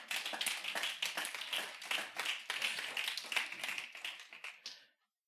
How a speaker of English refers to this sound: Give God a round of applause this morning.